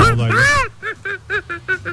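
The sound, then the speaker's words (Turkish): A person vocally imitates a monkey call: one long, loud rising-and-falling whoop, then six short, evenly spaced hooting yelps, with no other talk. “Organik maymundu benim yaptığım.”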